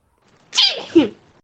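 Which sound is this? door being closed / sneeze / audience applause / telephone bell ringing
sneeze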